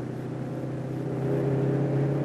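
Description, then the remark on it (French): A car engine hums loudly, a steady low drone that climbs slightly as the car accelerates, first gear up to 40 and then second gear toward 70-75, with no voices over it. “La première monte immédiatement à 40, puis la seconde, la seconde que nous allons monter à 70-75 puisque c'est la vitesse normale et moyenne.”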